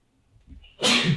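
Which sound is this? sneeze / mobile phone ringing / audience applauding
sneeze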